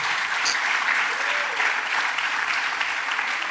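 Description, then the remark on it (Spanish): A church audience applauds God steadily, a dense, even wash of many hands clapping that holds at a constant loudness for the whole stretch, with no speech breaking through. “Dele un aplauso a Dios.”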